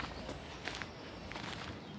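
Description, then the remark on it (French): Footsteps crunch steadily along paths in a forest, several paces in an even walking rhythm over a soft, broad background hush of open air. “Viens marcher le long des chemins dans la forêt, retrouver les souvenirs lorsqu'on s'y promenait.”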